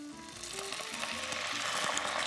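Water hits a hot pan of toasted chiles, setting off a steady, broad hissing sizzle that builds slightly over a couple of seconds, with faint low clinks underneath and no talking.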